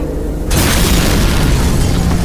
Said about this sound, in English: by igniting the gas in the cooling pipes and blowing the cell open.